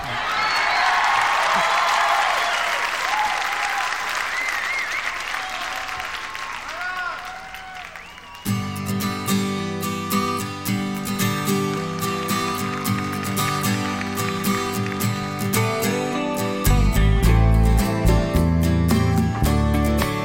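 A live concert recording opens with a large crowd applauding and cheering, then a band kicks in with full instruments, bass and drums growing heavier toward the end.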